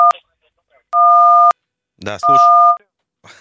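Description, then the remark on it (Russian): Three steady two-pitched telephone keypad tones as a caller presses buttons during a live radio call-in: a short one, then two longer half-second beeps, with a person talking between and after them. “Прекратите нажимать на кнопки.”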